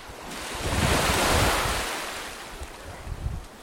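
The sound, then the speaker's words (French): Surf waves break, a broad rushing roar that swells to a peak and slowly recedes, with wind buffeting the microphone and no voices. “Si tu laisses les vagues te contrôler, chaque fois tu vas tomber.”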